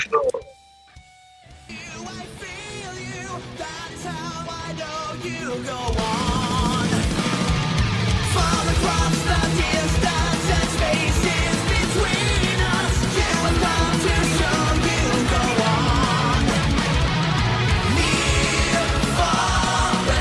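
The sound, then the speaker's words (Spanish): The chorus of a power metal song cover bursts in after a brief, thinner intro: driving fast drums, dense distorted guitars and soaring sung vocals, loud and sustained to the end. “Vamos a escuchar un pedacito del coro”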